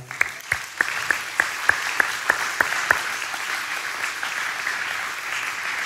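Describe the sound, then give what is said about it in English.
After a prayer, an audience applauds people who bring the good news of Jesus Christ to their part of the world: a dense wash of clapping with a run of about a dozen sharp, evenly spaced claps cutting through in the first few seconds before it settles into steady applause. “Let's just, can we just clap for them?”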